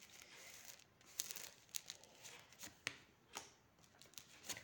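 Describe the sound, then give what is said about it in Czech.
Tarot cards being laid out for a reading about partner relationships: soft papery rustling punctuated by several crisp slaps and flicks as cards land one after another, fairly quiet, with no talking. “Co se týče partnerských vztahů, tady ještě hodím další karty.”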